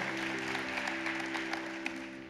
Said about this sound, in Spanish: Amén. Amén. Den un aplauso al Señor por esas palabras, nos Dios.